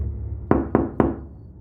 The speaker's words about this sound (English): I'm gonna knock on the window.